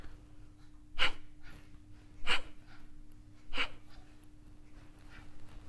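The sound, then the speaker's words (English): Three sharp, forceful breaths pushed out through the nose in a fire breath breathing exercise, evenly spaced a little over a second apart, fairly loud over a faint steady hum, with no talking. “In the fire breath, you're focusing on the breathing out.”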